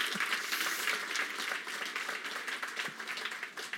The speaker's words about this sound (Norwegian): Allerede det fortjener en applaus.